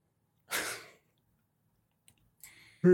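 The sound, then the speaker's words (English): A person yawns: a breathy, airy exhale, a short pause, then another drawn-in breath rising into a loud voiced groan at the very end. No one speaks. “Ooh, sorry. Yawning.”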